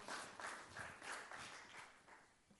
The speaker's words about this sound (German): danke für die drei, vier Klatscher.